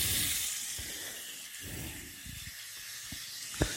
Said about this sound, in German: Das habe ich jetzt hier so ein bisschen zur Seite geschoben und jetzt gebe ich nach und nach hier die ähm, Entenstücke dazu in die Pfanne. Am besten möglichst immer auf die Fettseite, dass die auch nochmal ein bisschen ausbraten kann.